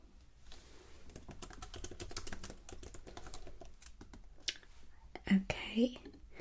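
Rapid clicking of keys on a computer keyboard during a luxury hotel check-in, a quiet steady patter of typing with soft whispering alongside and a few louder taps near the end.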